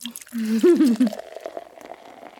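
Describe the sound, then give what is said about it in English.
A short voiced murmur, then a steady stream of liquid pouring into a glass for over a second, a soft continuous gurgle that tapers off. “Mm, another glass, please? Sure.”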